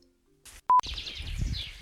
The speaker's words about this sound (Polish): Jest czwarta rano, 4 stopnie na termometrze, Figerski Park Narodowy. Ruszam na szlak, no, no jeszcze nie, nie wzeszło słońce, jeszcze jest chwila. Jest rzeźko, ptaki śpiewają z bardzo dużą intensywnością, naprawdę.